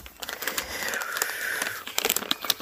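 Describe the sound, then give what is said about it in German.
Crisp crinkling of two plastic snack bags of Lorenz nut and fruit mix, small 100-gram packs, being handled, with irregular sharp crackles and rustles throughout and a brief faint tone in the middle. “So, jetzt habe ich die beiden Tüten aus der Wohnung geholt.”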